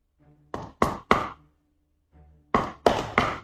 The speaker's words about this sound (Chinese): 史殿林在这敲敲门。